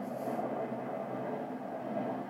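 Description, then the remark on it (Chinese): A steady, loud roar of an airplane passing overhead, a continuous low rumble with a broad hiss above it that holds evenly throughout, with no one talking. “我录音的时候一直有飞机飞过去，这段我不知道会不会剪掉，应该是会了。”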